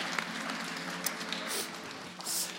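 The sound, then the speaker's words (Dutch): An audience at a Volkspartij Dongen (list 1) election campaign event in Dongen applauds with a dense, steady patter of many hands clapping for a few seconds, a moderately loud wash of sound with brief brighter bursts and faint voices mixed in. “lijst 1, Volkspartij Dongen. Applaus.”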